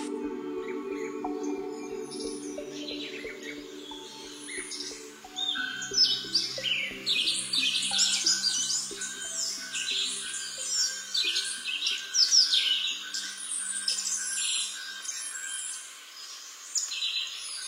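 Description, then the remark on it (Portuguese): Many birds chirp and sing at once in a dense, continuous chorus of high, quick trills and tweets, with a low hum in the opening seconds and no voices. Recorded at the Instituto Nacional da Mata Atlântica in Santa Teresa. “Só que no lugar dos sapos e das bromélias, os bichos agora vêm do alto. Mais especificamente, eles são cerca de 60 pássaros anilhados”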